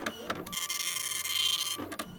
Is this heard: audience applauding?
no